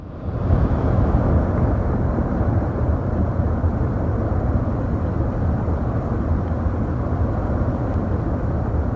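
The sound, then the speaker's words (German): A massive rockslide, the 2017 Cengalo rockfall with millions of cubic meters of rock breaking away, recorded on a phone from the terrace of the Sciora hut, roars in a deep, continuous rumble, loud and steady for the whole stretch, with heavy low-end churning and a faint wind-like hiss above it and no voices. “Dieses Dröhnen stammt aus einem Handyvideo, aufgenommen auf der Hüttenterrasse der Schora-Hütte. Es zeigt, wie Millionen Kubikmeter Fels vom Cengalo wegbrechen.”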